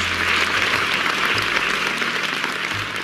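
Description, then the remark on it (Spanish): Dense, steady applause from a crowd, many hands clapping at once in a continuous loud wash of noise that holds evenly for a few seconds with no voices standing out. “Lluvia de aplausos.”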